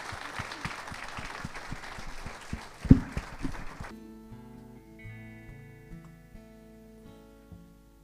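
A crowd claps for about four seconds over a steady drumbeat, then the clapping stops and a band carries on with sustained, melodic tones.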